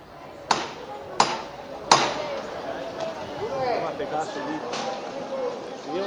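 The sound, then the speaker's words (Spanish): Three sharp, ringing knocks in a steady, evenly spaced rhythm signal the 'levantá', the lifting of the Cautivo procession float during a Holy Week procession, followed by a continuous murmur of crowd voices. “Y suena una levanta.”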